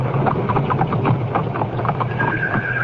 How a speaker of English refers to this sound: This is what worried Roland's old friend Harrison Clay, attorney and business associate, and why, in a driving rain, he speeds his carriage to Hightower.